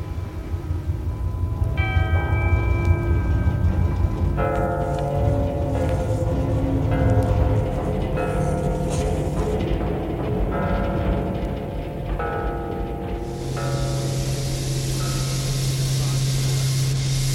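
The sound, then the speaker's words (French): Wind tunnel airflow, heard from the hall of the wind tunnel with a scale car model in the test section, roars steadily and loudly throughout, a dense low rushing noise layered with shifting mechanical whines and tonal hums that change pitch in steps, ending with a brighter hiss. “vous entendez encore le bruit du vent. Là-haut dans la veine, la maquette d'automobile qu'on avait cachée à notre arrivée, secrète sous un drap noir, est à nouveau dans le vent de la soufflerie.”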